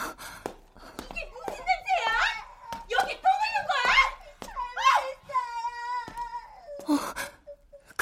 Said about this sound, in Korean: 아이 울음소리 같은데?